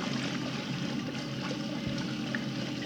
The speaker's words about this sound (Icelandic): koma ungu konurnar með þvottavílarnar heima frá sér og setja þær hér í samband